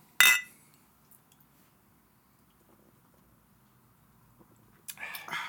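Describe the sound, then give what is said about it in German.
Beer glasses clink together once in a toast, a sharp, bright chime with a brief ring, followed by quiet and a few more glassy knocks near the end. “Womit legen wir dann los? Mit Bier. Ach so, stimmt, das haben wir gar nicht gemacht. Prost.”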